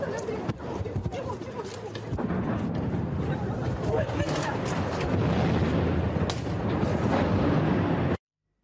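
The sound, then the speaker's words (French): Heavy explosions from shelling boom repeatedly through a dense, chaotic wash of noise, a few sharp blasts standing out, with indistinct voices mixed into the commotion, as rescue workers continue working during a bombardment in northeastern Ukraine. “Et malgré les bombardements, vous allez voir que les secouristes continuent leur travail.”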